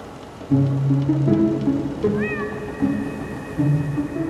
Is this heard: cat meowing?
yes